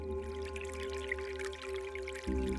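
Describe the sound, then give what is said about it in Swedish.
Water leaks through a hole into a small rowboat, trickling and dripping steadily, a busy wet patter over a constant low hum that swells slightly louder near the end. “Det har gått hål i ekan, sa hon till pappa och barnen.”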